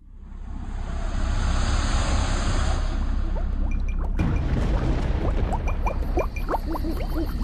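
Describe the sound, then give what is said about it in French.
Steady rushing river water, then a pot being dipped into the river and filled with water for cooking, with bubbly gurgles and splashes rising in pitch. Fairly loud, with no voices. “June et Linda sont donc à l'âge de pierre et vont chercher un pot d'eau dans la rivière pour préparer à manger”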